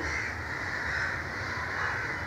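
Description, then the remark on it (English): Harsh caws from several crows run through a steady wash of outdoor background noise, fairly loud and continuous for the whole moment, with no one speaking. “You are listening to the total sound not of a crow to the total sound”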